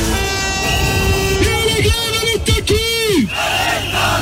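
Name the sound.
street protest crowd chanting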